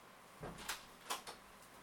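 A door is pulled shut at bedtime: two short pairs of soft knocks and clicks, like the panel meeting the frame and the latch catching, fairly quiet with no voices.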